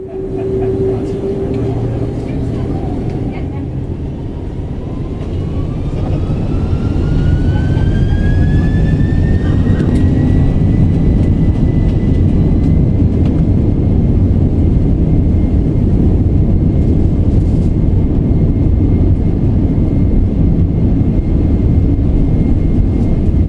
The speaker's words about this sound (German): Das Boarding wird abgeschlossen, die Vorbereitungen werden abgeschlossen und das Flugzeug bekommt seine Startfreigabe.